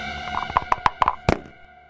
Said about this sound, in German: Dann würfelt.